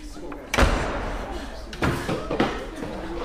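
A door slams shut with a sharp, heavy bang, followed by a couple of softer thuds and knocks, against a low background hum.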